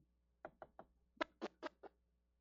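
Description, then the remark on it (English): Knocking on wood: three quick, lighter raps, a brief pause, then four louder, sharper knocks in a steady rhythm, with no voices in between. “They knocked on wood and they spit.”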